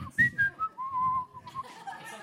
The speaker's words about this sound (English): It's like whistling. I tend to whistle during the holidays. I apologize.